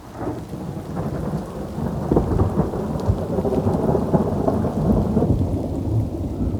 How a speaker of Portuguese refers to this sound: O sol deu lugar às nuvens, vieram trovões e logo a chuva.